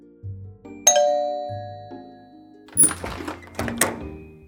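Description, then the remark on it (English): A doorbell sounds a two-note ding-dong chime, the tones ringing out and fading, followed by a couple of brief rattling, jingling bursts. Low hum underneath, no voices. “Let me just reach out of the story train window and ring the doorbell”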